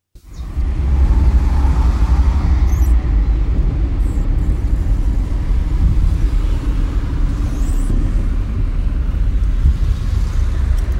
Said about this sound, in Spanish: Jaime Horacio se desplaza en el vehículo del periódico por la vía regional para tomar la autopista Medellín-Bogotá